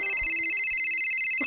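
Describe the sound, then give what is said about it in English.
A phone ringtone for an incoming call plays steadily and fairly loudly, a sustained high electronic tone with a few lower melodic notes beneath it, ringing continuously with no voices. “shit, that's my phone.”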